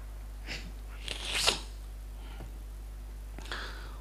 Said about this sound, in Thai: จามแล้ว